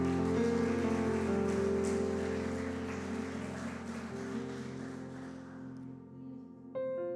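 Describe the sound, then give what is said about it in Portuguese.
An audience applauds the Lord during a church service in a dense, steady wash of clapping that gradually thins out near the end, with sustained keyboard or organ tones held underneath. “Vamos aplaudir o Senhor, queridos, vamos aplaudir a Ele.”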